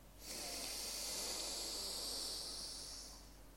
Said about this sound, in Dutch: We beginnen met een aantal diepe in- en uitademingen. Bij de uitademing mag je loslaten, mocht er wat spanning in je lichaam zitten. Adem een keer diep in.